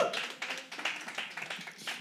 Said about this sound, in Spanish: Fuerte el aplauso